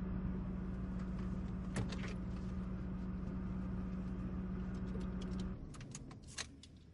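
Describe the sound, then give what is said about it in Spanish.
A car's steady engine and road rumble carries on for several seconds as it drives through a neighbourhood of single-family houses, then winds down and goes quiet as the car stops, followed by a few light clicks and rattles. “detiene el coche.”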